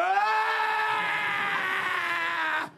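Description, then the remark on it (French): A voice imitates a long, loud groaning rattle, one strained, bleat-like moan held steady for nearly three seconds before cutting off abruptly. “un grand râle comme ça.”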